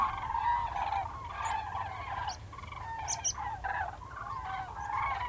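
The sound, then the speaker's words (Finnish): A large flock of common cranes on autumn migration, gathered on the Söderfjärden fields near Vaasa, Finland, calling continuously, many overlapping trumpeting and honking voices layered into a steady chorus with no talking. “Viikon luontoääni: Kurki”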